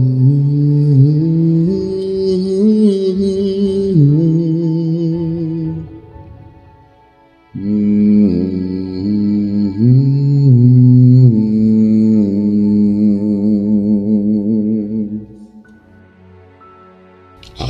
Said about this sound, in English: I hum and I wait. I wait and I hum. The harmony is a lot clearer now.